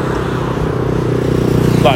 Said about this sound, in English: that motorcycle there, with, even with me like heavy breathing all the time, um, it doesn't sound as good as I want to, or sound as good as it should in my head.